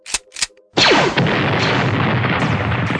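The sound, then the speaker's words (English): Two quick, sharp zapping blaster shots ring out, followed by a loud burst that swells into a long, rumbling crash of clattering metal and debris as a hatch door is blown open, lasting until the end. “Hand me that thuggy blaster and follow me down this corridor.”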